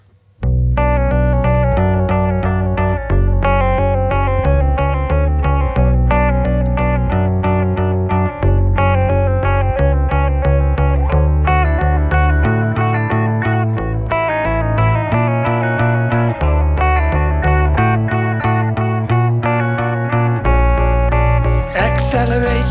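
A loud, steady rock song by a singer-guitarist from Amsterdam, from his new album, plays throughout, driven by heavily effected, distorted electric guitar with chorus-like shimmer and a full band underneath; no vocals come in during this stretch.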